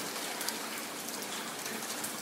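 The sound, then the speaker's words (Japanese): Steady rain that has been falling since morning, a dense even hiss with faint scattered drop patter, moderately loud, with no voices. It falls on hydrangeas in front of the Akebono-so apartment building. “その日は朝から雨が降り続いていて”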